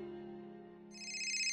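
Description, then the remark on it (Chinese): A simple electronic phone ringtone plays on its own from inside a shoulder bag: a steady, low sustained tone, then a bright, higher chiming note joins partway through, growing slightly louder. “一阵简约的电话铃声从白昕的挎包里传出来，他艰难的从人群中取出手机，屏幕上显示的是一个陌生的号码。”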